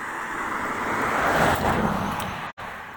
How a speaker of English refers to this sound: We've got a car coming up the road.